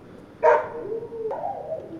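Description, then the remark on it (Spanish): Two short dog barks ring out, a sharp one followed by a softer, drawn-out bark, moderately loud with a faint hiss and no talking. “Está un chulo de ruido aquí, güey. Hijos de su puta madre los perros, güey.”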